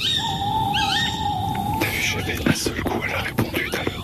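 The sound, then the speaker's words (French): A drawn-out tawny owl hoot, steady and slightly wavering, rings out for over a second over a hiss of woodland ambience in the Kéroumen wood in the evening, followed by soft rustling and faint whispered voices. “Après, on a aussi entendu ce soir on a fait un très bel enregistrement dans le bois de Kéroumen d'une chouette hulotte.”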